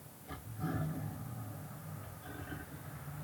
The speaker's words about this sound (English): Oh, it's a sand person dog. It's a sand person lizard dog thing. It's the dog that the sand people keep around.